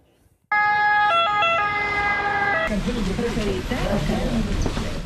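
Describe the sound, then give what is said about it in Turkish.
A loud ambulance siren in Naples, Italy, during the Covid-19 second wave, when patients were first treated in ambulances as emergency rooms filled, alternates between two tones for a couple of seconds, then cuts off as a person starts talking over busy background noise. “Napoli'deki acil servisler dolunca hastalara ilk müdahale ambulanslarda yapıldı.”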